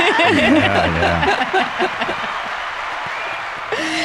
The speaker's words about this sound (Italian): Intanto eh, grazie, eh, benvenuta. E ciao. Grazie. E applausi.